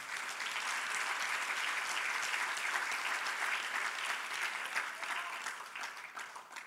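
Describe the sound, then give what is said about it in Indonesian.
An audience applauds for God during worship in a sustained, dense wash of clapping that holds steady for several seconds before tapering slightly at the end, with no voices standing out. “Berikan tepuk tangan bagi Tuhan kita.”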